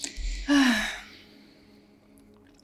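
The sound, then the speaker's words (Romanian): A single deep, breathy intake of air, swelling quickly and then fading out into near silence. No one speaks. “Am luat o respirație lungă.”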